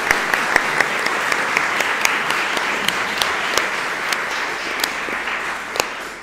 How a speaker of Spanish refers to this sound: Entonces, un aplauso también para el Club de Periodistas.